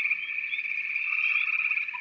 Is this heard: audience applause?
no